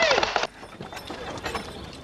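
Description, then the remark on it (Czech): Horse hooves clip-clop at a quick, uneven pace as the horse sets off, following a brief loud burst with a thin whistling tone at the start. “Uh, no on se s váma rozjede příliš rychle, ale pozor. pozor.”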